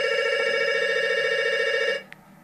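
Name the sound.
telephone bell ringing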